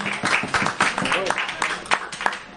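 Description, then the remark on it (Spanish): An audience breaks into steady, dense applause lasting a couple of seconds, with many overlapping claps, a few sharper hand claps standing out, and scattered cheering voices mixed in. “Fuerte aplauso.”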